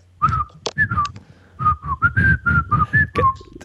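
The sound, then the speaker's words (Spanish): Someone whistles a short melodic tune: about a dozen clear, breathy notes that rise and fall in a steady rhythm, with no talking. “soy súper fan de la canción de silbar.”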